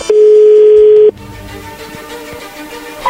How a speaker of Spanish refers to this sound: Ahí está marcando, no haga ruido, por favor.